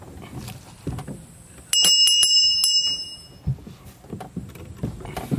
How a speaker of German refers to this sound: die Glocke ertönt.